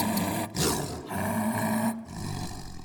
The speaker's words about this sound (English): Then the tiger bounded up and roared.